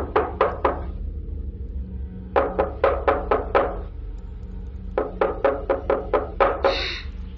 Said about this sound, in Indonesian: Semakin malam, semakin sepi dan sunyi. Tiba-tiba ada seseorang yang mengetuk jendela kamar.